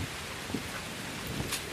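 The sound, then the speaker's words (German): A steady, airy rustle of tree leaves stirred by wind at an airfield, a continuous soft hiss with a few slightly brighter flutters, even in loudness, with no voices. “von Wind in Bäumen mit Blättern.”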